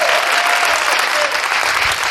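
An audience claps steadily, a dense, even wash of many hands sustained at full strength throughout, with no pauses or voices standing out.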